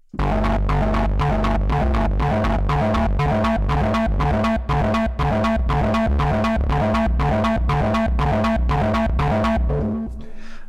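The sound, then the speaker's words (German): A patch on an MS-20 analog synthesizer, with channel B routed into the VCO CV input, pulses in a steady, fast rhythm, a loud throbbing tone with a deep low end and bright buzzy overtones, repeating evenly for about ten seconds before stopping abruptly. No voices. “Wir gucken mal ein bisschen weiter, was wir noch für Sounds aus dem MS-20 rausholen können.”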